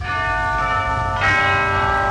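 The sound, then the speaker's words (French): Church bells ring loudly, their rich overlapping tones sustaining and humming, with a fresh strike about halfway through that renews the clang. No voices. “Voilà les cloches.”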